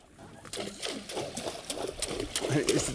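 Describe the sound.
On a fishing boat out catching albacore tuna, a fishing rod slaps down into the water again and again in quick, uneven strikes, each a short splashy burst, while voices talk over the commotion.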